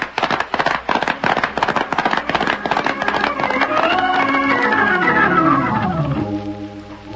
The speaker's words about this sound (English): Since this sounds like a pitched battle, maybe it's open to the public.